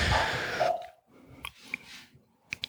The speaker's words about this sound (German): Oh, das Kind hustet.